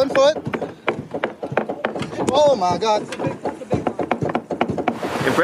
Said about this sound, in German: Lautes Klopfen schreckt die Tiere nicht ab.